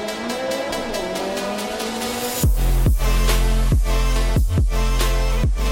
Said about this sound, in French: On les suit doucement, et d'un coup, il se chauffe, en... il accélère, il rétrograde, il passe un, coup de frein il fait un dérapage là comme ça.